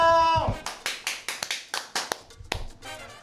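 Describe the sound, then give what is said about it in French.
A brief ringing tone opens, then about ten sharp handclaps from an excited audience follow in a quick, uneven rhythm. They are fairly loud, sparse rather than the dense roar of a large crowd. “un public déchaîné, excité comme jamais”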